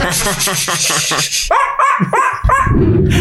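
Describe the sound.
A person imitates a dog, first with a quick run of yappy barks, then with several louder, separate, forceful woofs.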